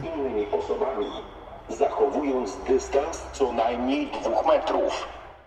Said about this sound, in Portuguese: Um carro de som passando na rua na Polônia.